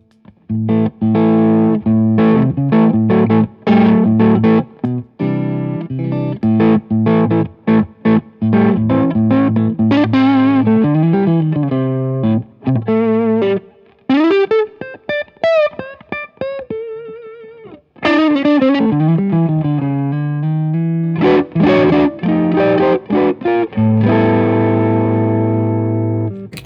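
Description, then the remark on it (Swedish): An electric guitar runs through the first drive pedal, a Sendrive overdrive pedal, giving a gritty, saturated tone: choppy strummed chords, then sustained singing lead notes with bends, then chords again, loud throughout with no talking. “Ska vi eh, gå på första drive-pedalen här?”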